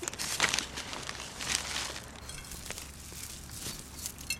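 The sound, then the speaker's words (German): A plastic bag of horn shavings, used as fertilizer, is taken from a shed and handled by a gardener, its plastic crinkling and rustling in irregular bursts with a few sharper crackles, and no voices. “Aus ihrem Schuppen holt die Gärtnerin eine Tüte mit Hornspänen.”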